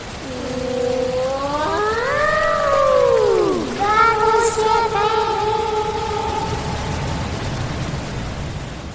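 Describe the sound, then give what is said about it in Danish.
A giant paper machine is switched on, its whining tones sliding upward then settling into a steady hum, over a constant loud rush of paper pulp pouring onto huge running belts that move almost as fast as cars on a motorway. “Men nu bliver den gigantiske papirmaskine tændt. kæmpe store rullebånd begynder at køre.”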